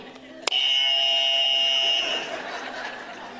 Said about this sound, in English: He just had this buzzer and he just banged it all day.